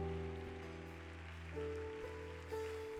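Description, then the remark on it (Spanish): A church audience applauds the King of Glory in worship, a steady, dense patter of clapping layered over sustained keyboard chords that shift twice. No one speaks. “aplauso al Rey de Gloria en esta hora.”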